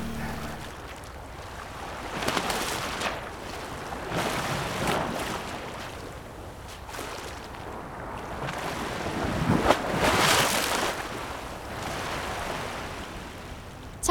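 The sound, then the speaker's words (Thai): Ocean waves wash repeatedly onto the shore at Pranburi beach, Thailand, by a seawall, in broad, rushing surges, with a steady wind-blown roar filling the background. No voices are heard. “ปราณบุรี กำแพงกันคลื่น เสียงคลื่น-เสียงคน”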